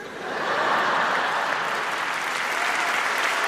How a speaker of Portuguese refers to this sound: Essa piada é muito específica para Portugal. Os portugueses tudo aplaudindo, falando: caralho, ele sabe, muito fixe.